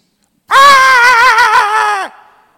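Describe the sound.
A single loud, sustained wail lasting about a second and a half, a voice imitating a screaming baby with a wavering, strained cry that cuts off abruptly.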